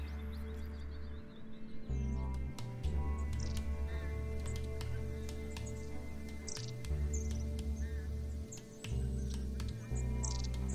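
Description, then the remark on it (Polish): Thin, high metallic calls of a long-tailed tit, brief repeated chirps scattered irregularly over a steady, loud low-pitched musical background, with no talking. “Taki ptak, który często e, pojawia się E, w statkach i możemy go spotkać e, zimą, e, to raniuszek.”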